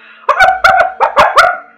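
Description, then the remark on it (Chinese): Two watchful dogs belonging to a zebra bark furiously at a knock on the door, in a quick, loud volley of about half a dozen sharp, overlapping yaps that follow one another almost without pause. “敲门的声音引来桑塔太太两只机警的狗不断的狂吠。”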